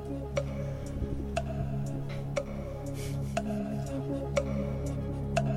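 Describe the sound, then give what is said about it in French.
A short quiz jingle made for a Europa League quiz, built on a steady clock tick, sharp clicks falling about once a second over a low sustained musical drone, with no voices. “j'ai préparé un super jingle en plus pour, pour, pour l'Europa League parce que là tout de suite, euh, immédiatement, eh ben, on va on va s'attaquer au quiz”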